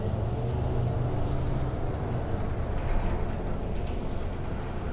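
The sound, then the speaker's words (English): Steady, loud low rumble of a bus in motion heard from inside, with constant engine drone and road noise and a few faint rattles and clicks toward the end; no one speaks. “Ooh, it's cold on this bus too.”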